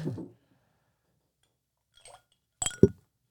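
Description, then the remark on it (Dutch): Ice cubes stuck together drop into a glass, a soft rattle at first and then, after a pause, a couple of bright, sharp clinks that ring briefly before fading. “Eh, ja, dan ga ik even met ijs proberen.”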